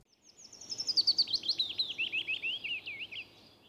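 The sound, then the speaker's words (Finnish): A willow warbler sings a clear, sweet phrase of rapid high notes that tumble steadily downward in pitch over about three seconds, alone against a quiet background. “Ja sitä paitsi mulle lapsena jo opetettiin, että Peipponen laulaa duurissa ja pajulintu mollissa.”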